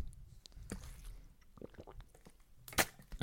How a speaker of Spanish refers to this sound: Bueno, habéis escuchado como una gran persona bebe agua. Esa gran persona soy yo. Pero es que me iba a asfixiar, ¿vale? Perdón. Estoy pidiendo perdón por beber agua en mi propio podcast.